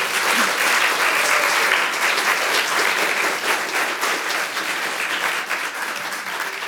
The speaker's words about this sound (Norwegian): Så gi gjerne en stor applaus til alle sammen.